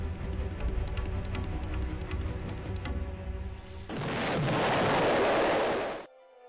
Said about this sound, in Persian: درست وقتی که میخواست حرفش را تکرار کنه صدای انفجار از زمین مین بلند شد